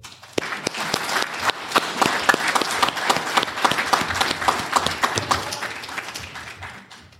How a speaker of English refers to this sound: Retire the colors. Ladies and gentlemen, a round of applause for the color guard.